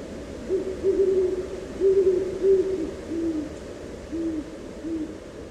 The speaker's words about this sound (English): Somewhere, an owl calls, Ooh, ooh. And the vastness becomes larger still.